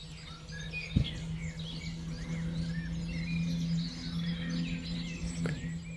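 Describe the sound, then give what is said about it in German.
Several birds chirp and twitter continuously, overlapping calls over a low steady hum, with a couple of sharp clicks near the start and end. “Jedes Zwitschern der Vögel, jeder leichte Windhauch, der hörbar ist, umspielt liebevoll diesen Raum, der nicht dargestellt werden kann.”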